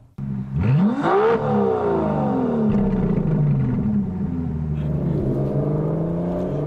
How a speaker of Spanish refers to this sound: Ese sonido. Y ese sonido mejorará cuando más fuerte es. Este es uno de esos vehículos que se mantiene mejor cuando más rápido avanza. Se siente bien a 80, mejor a 110 y mucho mejor por encima de 140.